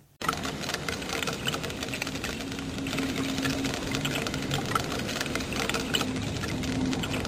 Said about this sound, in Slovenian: Eh, raki streljci so to, pistol šrimpi.